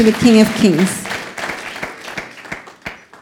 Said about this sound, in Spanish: Dele ese fuerte aplauso. Déselo fuerte, fuerte al Rey de Reyes.